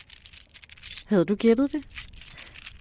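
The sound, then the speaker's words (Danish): Mussel shells clicking and rattling in quick, irregular, light taps, fairly faint, broken up in the middle by a short spoken question before the clicking resumes. “Det er lyden af muslingeskaller.”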